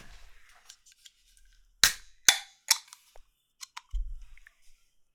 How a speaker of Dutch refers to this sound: Ik begin eerst met de Classic Bubble Tea. Pearl Milk noemen ze die wel. En eh, ik ga het blikje gewoon eens openen.